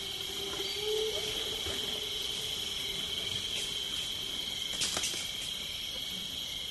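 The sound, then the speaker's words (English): A dense natural chorus of animal calls: a steady high insect drone runs throughout, with a low hooting tone early on and scattered brief chirps and clicks layered over a quiet outdoor background. “This is the biophony, and the biophony is and biophony is the collective sound that's created by all organi- vocal organisms in a given habitat at one time.”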